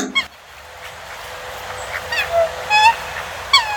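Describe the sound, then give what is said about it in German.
A swan gives several loud, nasal honking calls in quick succession, harmonic and brassy, over a steady outdoor background hiss with no talking. “Nein, das ist nicht die Mama. Das ist der Schwan.”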